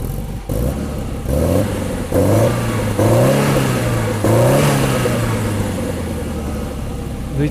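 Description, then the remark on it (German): A Peugeot 205 Turbo 16 rally car engine revs hard in a series of rising, snarling bursts, each blip climbing in pitch then dropping back to a rough, throaty idle between revs. “klingt nicht ganz so prägnant, würde ich sagen. Nicht ganz so prägnant wie der Sportquattro. Aber trotzdem biestig.”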